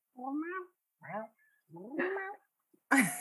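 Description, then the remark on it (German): A voice imitates the speaker's cat Lili meowing, three short harmonic mews with rising and falling pitch in quick succession, followed by a brief breathy, hissy burst at the end. “Weißt du, äh, meine Katze Lili, die ist auch, die traut sich immer mehr zu sprechen und zu kommunizieren und macht immer so.”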